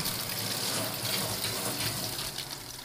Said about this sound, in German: Noch dazu regnet es die ganze Nacht und die Tropfen trommeln an ihr Fenster.